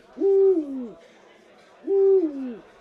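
An owl hoots twice, about a second and a half apart. Each call is a clear, drawn-out hoot that slides downward at the end, with nothing else around it.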